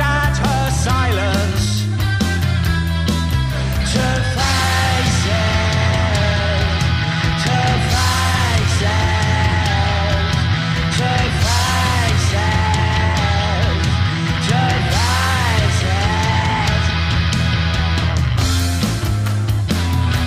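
Loud, sustained screaming with sliding, wavering pitch rises over a dense, driving band that plays steadily throughout the whole stretch.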